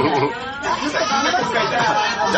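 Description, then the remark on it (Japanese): Loud, dense crowd chatter fills Ebisu, a busy izakaya in Nishi-Ogikubo known as a cheap senbero drinking spot, overlapping voices and clatter forming a steady noisy wall of sound with no pauses throughout. “西荻窪の名店、恵比寿という居酒屋に、えー、来ております。”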